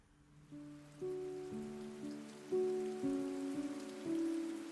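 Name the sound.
rain falling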